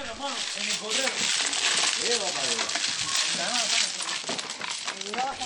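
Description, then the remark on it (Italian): In a courtyard in Cuba, domino tiles clack and rattle against a table during a game of dominoes in a busy, continuous stream of sharp clicks, while several voices talk and call out over the clatter. “I litigi e il rumore delle fisce sono assordanti, per questo nessuno li vuole in casa.”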